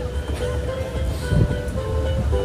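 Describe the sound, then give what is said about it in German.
A steady low rumble of a small tourist train, covered by a roof but open at the sides, rolling along, with a continuous engine drone and faint mechanical hum, heard from inside, fairly loud with no voices. “Meine Freundin und ich befinden uns in einem kleinen Zug.”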